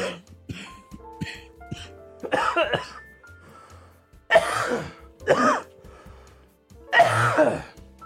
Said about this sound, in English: sorry about that. This this cough I hope goes away soon.